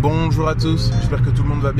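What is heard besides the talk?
car interior background noise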